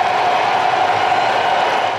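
A large baseball stadium crowd roars and applauds continuously after coaxing a player out for a curtain call, as Kyle Schwarber steps out of the batter's box. It is a dense, loud wash of cheering and clapping that holds steady without letting up.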